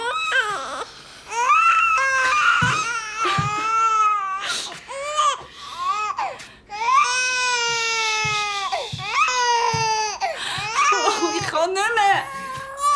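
A baby who cries around the clock cries loudly, wailing in long, high-pitched bursts separated by short gasping breaths, continuing without pause across the whole stretch.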